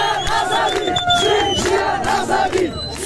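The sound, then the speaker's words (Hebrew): A large crowd of men and women shouting and chanting encouragement at street protests in Iran as women burn their hijabs, a dense, loud wash of raised voices with rising and falling cries, sustained throughout without pause. “רצח שהוציא את נשות איראן לשרוף את החיג'אב שלהן ברחובות לרקע קריאות עידוד של נשים וגברים רבים.”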